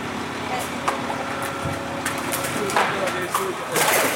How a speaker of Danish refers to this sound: Øh, men det, der sker nu, det er, at nu vipper han øh, ladet op, og så kommer plasten over mod væggen her. Der falder de første...